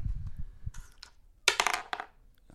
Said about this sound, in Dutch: Oh, we moeten weer even dobbelen. Ja, we moeten weer even dobbelen. Oké, okay, pak even mijn dobbelsteen. Oké, doen we weer wie het hoogst gooit?